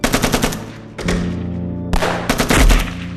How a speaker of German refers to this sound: Danach fiel aus dieser Richtung der tödliche Schuss, von dem unser Gruppenführer Unteroffizier Schulz ermordet wurde.